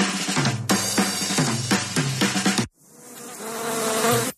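A swarm of bees buzzes loudly, a dense pulsing drone that cuts off briefly, then resumes slightly softer and swells again. No one speaks.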